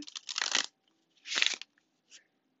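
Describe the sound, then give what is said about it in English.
Tarot cards being shuffled for a reading: two quick rustling, flapping bursts with a pause between them, then a faint final tap, and no one speaking. “I cannot guarantee that you will hear me shuffling the whole duration of this reading, but based off of faith, we will go from here.”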